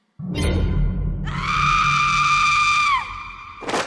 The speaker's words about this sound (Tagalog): Biglang sumigaw si nanay.